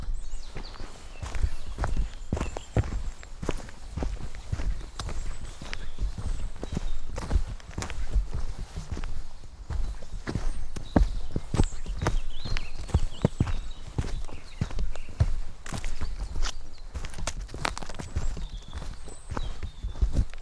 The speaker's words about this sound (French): quand on rentre dans la forêt, ce qui est aussi important, c'est de marcher tout doucement. Euh, d'éviter, bah, de repérer même euh, le son que produit euh, nos pas, soit les petits gravillons, soit les branches qui, sur lesquelles on marche,